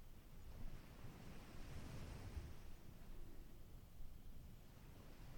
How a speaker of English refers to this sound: As you listen to the waves, let them remind you of the vastness of the world beyond computers and smartphones.